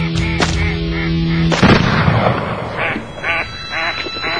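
A few sharp, booming shotgun blasts ring out, the last one louder, followed by a flock of ducks quacking in a steady, chattering chorus.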